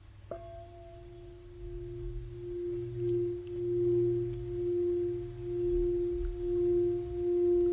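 Quartz silica singing bowls ring out after a single strike, then hum with two steady, pure tones that swell and ebb in slow, even waves, with no one speaking.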